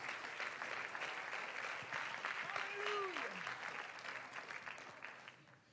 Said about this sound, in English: Oh, clap your hands unto the Lord right now and give God praise.